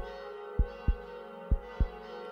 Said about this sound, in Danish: Står du foran kirkens dør? Gå helt tæt på. Kom nu. Læg din hånd på døren. Nogle gange banker den, ligesom et hjerte